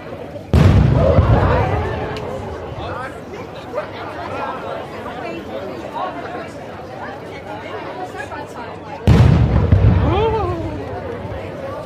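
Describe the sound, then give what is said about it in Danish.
Two loud, deep cannon salute blasts fired from Kronborg castle just after an opening speech, roughly eight seconds apart, each with a rumbling tail, while a crowd chatters steadily underneath. “Men øh, lige efter talen blev der skudt salut fra Kronborg.”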